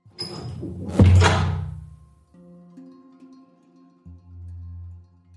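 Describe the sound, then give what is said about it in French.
A bedroom door opens with a single solid clunk of the latch, followed by a low, steady droning hum that lingers and shifts in pitch afterward. No one speaks. “Elle était encore en train de contempler son reflet sur la vitre de l'unique fenêtre de la chambre lorsqu'on ouvrit la porte.”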